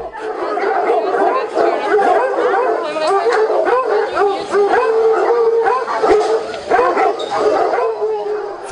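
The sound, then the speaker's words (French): A pack of hunting hounds, used for hunting with hounds, bays and howls together as the dogs are brought in, many overlapping voices forming a loud, continuous chorus with sharp yelps and drawn-out howls throughout. “Faites entrer les chiens.”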